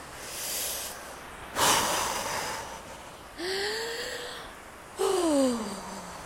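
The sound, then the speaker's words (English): Slow, deep mouth breaths drawn in and pushed out, about four long airy rushes in a row, clear, with a faint voiced sigh on the later exhales; a person demonstrating long mouth breathing. “That's how you'd be mouth breathing.”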